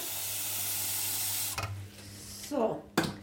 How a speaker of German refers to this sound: Und jetzt stelle ich mal das Wasser hin, weil das muss kochen.